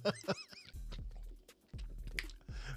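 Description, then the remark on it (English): Crunching as ice is chewed, a series of sharp, irregular crackling bites, with a low droning tone running underneath. “Like all this crunching and then the damn music comes on.”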